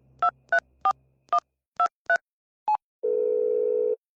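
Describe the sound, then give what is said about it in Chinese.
Telephone keypad dialing: six quick dual-pitched beeps in an uneven rhythm, one more short tone, then a steady, low, buzzy phone tone holding for about a second. No voices. “慕白立即拨通了裴然的电话。”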